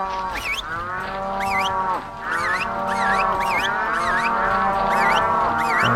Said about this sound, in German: Genau, hier ist also der Stall. Und da sind die Kühe. Und wir pfeifen sie mal zusammen.